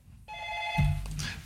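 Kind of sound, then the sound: signal or alarm, telephone ringing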